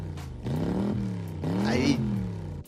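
A voice imitates a car engine starting and revving, with two rising, buzzing revs in quick succession, fairly loud, with no other sounds around it.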